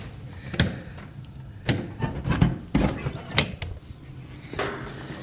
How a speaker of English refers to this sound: Um, I'm going to open the outside door and see what it's like outside.